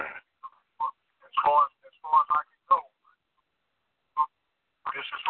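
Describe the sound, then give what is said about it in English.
Tinny, radio-like fragments of speech come in short, choppy bursts separated by gaps, a voice echoing back through a delayed, buffering live broadcast sent from a phone through a computer. “Still, well, still got to echo because we're right on top.”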